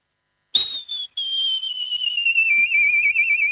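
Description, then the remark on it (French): A person imitates a golden eagle's call: a long, piercing whistled cry, briefly broken near the start, then held and slowly falling in pitch, loud with no talking. “Et ensuite, euh, l'aigle,”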